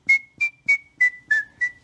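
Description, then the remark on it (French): Rapid human whistling: seven quick, evenly spaced high-pitched pulses in a steady rhythm, each with a breathy attack, the pitch holding nearly level and dipping slightly toward the end. No voices. “il n'y a pas d'école de siffleurs”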